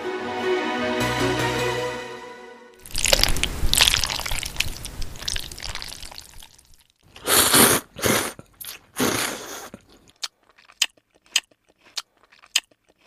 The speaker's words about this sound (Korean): 뭘 이렇게 쩝쩝대면서 먹는지 모르겠는데 아주 익숙한 목소리, 그러니까 소리이긴 하죠. 짜장면 먹는 소리인데요.